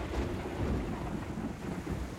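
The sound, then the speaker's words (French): A stormy ocean roars steadily, with a deep rumble of thunder and churning waves filling the whole stretch in a dense, continuous wash of low noise. No one speaks. “L'eau, les immenses étendues d'eau, ses flux et ses reflux, ses vagues, ses tumultes, ses tempêtes.”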